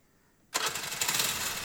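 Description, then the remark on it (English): A small moped engine suddenly sputters to life after a brief silence, then keeps running in a loud, steady, buzzing idle with a slightly pulsing rhythm, with no voices, as a small group sets out on a few mopeds. “Then we take a few mopeds and head out.”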